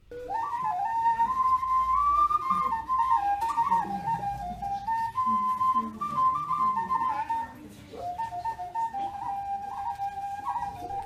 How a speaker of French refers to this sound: Il a même fait un espèce de tuto pour fabriquer une flûte en carotte. Euh, ça sonne comme ça. Écoutez, c'est incroyable.